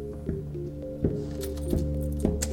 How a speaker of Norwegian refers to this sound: Han snur seg mot safen og fikler med nøklene